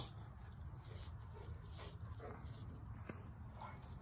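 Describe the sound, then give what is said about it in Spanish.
Dogs play-fighting, one dog biting one leg and then the other of a dog lying there and letting it, with soft whimpers, snuffles and scuffling against a steady low background hum; the sounds are quiet and continuous rather than loud barking. “Texas ya la fue a molestar. Le muerde una pata, le muerde la otra y se deja”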